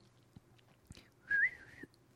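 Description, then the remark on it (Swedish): A brief, breathy attempt at whistling a film soundtrack melody: one wavering, slightly rising note held for about half a second, with a few soft clicks around it and no talking. “nu kan inte jag vissla.”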